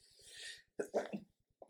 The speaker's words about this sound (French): Pardon. Allergie. tu as éternué, c'est un symptôme du Covid